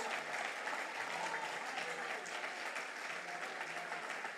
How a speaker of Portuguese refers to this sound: Pode aplaudir a Jesus, que isso aqui é uma revelação de Deus.